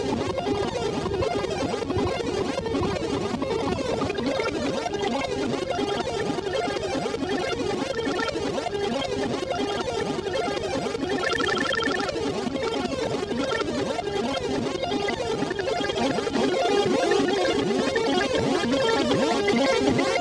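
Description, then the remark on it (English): A modular synth runs through a dual filter with frequency modulation. The frequency is controlled by the last two outputs of a CVP1 while the spread is adjusted, giving a dense, chaotic, buzzing wash at steady loudness, with a brief burst of bright tonal ringing partway through. No one speaks. “So it's a dual filter, and I'm uh, and then I'm gonna mess with the spread of this, and uh, yeah, you're just gonna hear some real funky stuff start happening.”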